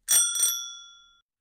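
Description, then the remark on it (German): A bicycle bell, one of four being compared for pitch, dings twice in quick succession, clear, its bright metallic ring lingering and fading out after about a second, with no other sounds around it. “Also welche Fahrradklingel war die höchste von den vieren?”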